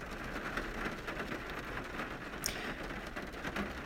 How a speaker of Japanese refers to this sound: いやーほんと雨がすごい